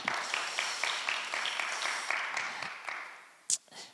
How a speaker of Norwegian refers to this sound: Vi kan gi henne en applaus.